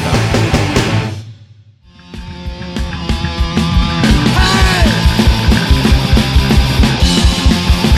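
A loud, dense punk hardcore song with distorted guitars and pounding drums. It cuts out for a moment, then the full band crashes back in at full force with shouted vocals.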